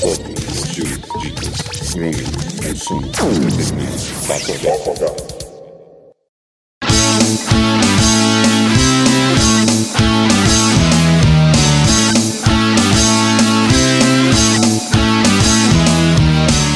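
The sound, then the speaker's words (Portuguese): A short, busy jingle with sweeping whooshes and a voice calling out words over it, then a second of silence before upbeat, steady music kicks in loudly. “nós voltamos logo após a nossa vinheta.”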